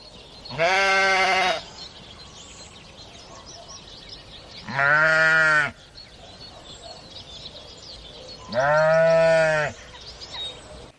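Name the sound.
flock of sheep bleating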